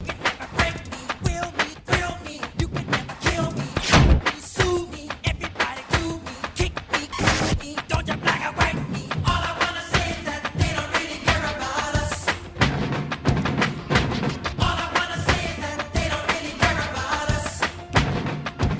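A pop song with a strong, steady drum beat driving it, dense instrumentation and vocal melody lines, playing loudly and continuously throughout.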